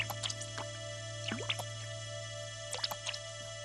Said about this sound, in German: Kali beginnt das Wasser aus dem Boot zu schöpfen.